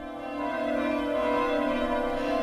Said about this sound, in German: Wenn nächsten Freitagabend alle Glocken der Kirchen und Kapellen in Eichstätt läuten, dann ist das das Startsignal der Nacht der offenen Kirchen.